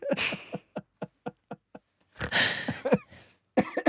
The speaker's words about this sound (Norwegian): Jeg må hoste litt av den.